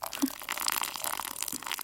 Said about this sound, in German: Öffnen Sie den Verschluss an der Oberseite der Dose. Mhm. Ein halbes Glas Wasser, circa 0,1 Liter, vorsichtig in die Dose gießen. Langsam.